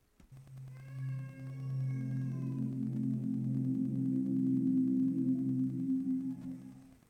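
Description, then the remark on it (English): An Amazon Echo smart speaker's power-on startup tone as it turns on during setup: a smooth, warm electronic hum with layered harmonics that swells up, holds steady for several seconds, then fades away, heard alone. “Once you have done that, let's give it a moment and we'll listen for the next step, which is the echo turning on, which sounds like this.”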